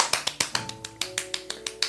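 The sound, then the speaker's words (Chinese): A quick, steady run of about a dozen hand claps, each one short and crisp, with a faint sustained tone humming faintly underneath and no talking. “金马奖第五十九届最佳男主角的影帝呢，就由我们的伟大的香港演员黄秋生黄大哥以《白日青春》这部电影夺得了这一届的金马奖影帝，拍拍手。”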